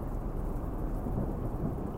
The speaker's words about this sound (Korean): 이틀은 어찌저찌 버텼는데 3일째 되던 날 갑자기 천둥 번개를 동반한 엄청난 비가 내리더군요. 당시 저는 굉장히 겁이 많아서 창문 없이 방충망 너머로 들리는 그 천둥 소리와 번개 불빛은 정말이지 공포 그 자체였습니다.